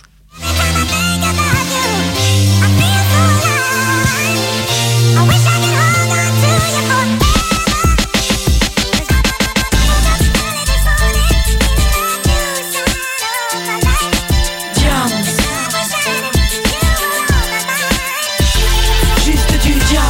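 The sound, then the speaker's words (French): A loud music track played from Spotify, without talk, opening with sustained melodic chords before punchy drums and bass kick in partway through, driving a steady beat to the end. “Alors voilà, voilà, c'est ce qui arrive quand on coupe le son de Spotify en préparant le morceau suivant.”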